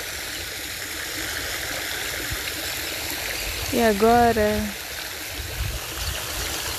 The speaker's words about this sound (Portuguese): Se imagina próximo a uma cachoeira. E agora você vai andando em direção à água. E à medida que você vai escutando o barulho da água, você vai relaxando cada vez mais.